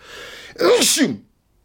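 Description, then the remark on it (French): A single loud sneeze bursts out after a brief breathy intake, its sharp noisy blast ending abruptly and followed by silence. “Et je sens que je vais éternuer d'ailleurs”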